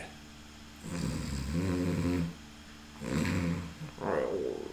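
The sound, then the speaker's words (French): Three loud, rasping snores in a slow rhythm, each a long, rumbling breath, with a brief pause between them; they sound like a voice imitating snoring. “il guette les ronflements, tentant de discerner ceux qui indiquent un sommeil profond et ceux, au contraire, qui pourraient indiquer la possibilité d'un réveil.”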